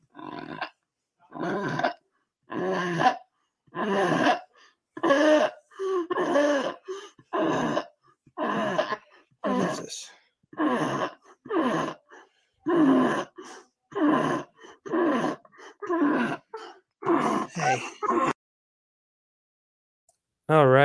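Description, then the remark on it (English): Labored, gasping breaths come in a steady series of loud bursts, each deep heave broken by rough snorting sounds, continuing for about eighteen seconds before falling silent. “the breathing difficulties and the specific uh, deep, heavy or gasping for air and then snorting sounds”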